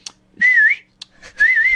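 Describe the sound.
Two short, flirtatious whistles from a person, each a bright, slightly wavering tone lasting under half a second, separated by a brief pause with small clicks and breaths.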